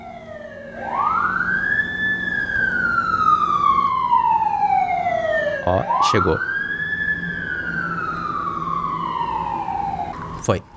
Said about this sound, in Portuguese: Peraí, que tá vindo uma ambulância. Uma coisa que nunca muda: sempre tem uma ambulância na hora que eu tô gravando. E elas fazem muito barulho. Eu não sei se vocês estão escutando daí, mas ela tá chegando.